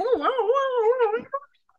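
A dog named Hootie lets out a long, wavering, high-pitched whimper lasting over a second, then a couple of quick yips. It's fairly clear, with no talking.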